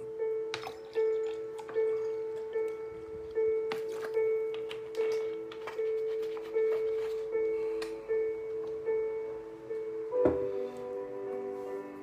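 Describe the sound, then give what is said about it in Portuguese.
Water is poured into a glass, with soft splashing and gurgling pulses over a steady, sustained tonal hum that runs through the whole clip. No one speaks. “Deixa eu até encher o meu aqui.”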